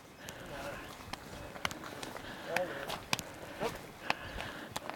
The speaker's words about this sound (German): Unsere Wanderung führt uns ja konstant an Weiden entlang und da sind überall Kühe. Und jetzt treffen wir sogar noch einen Bauern, der versucht, ein paar Kühe zusammenzutreiben.